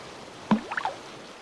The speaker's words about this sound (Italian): Eccolo il mare! È venuto a riprenderti!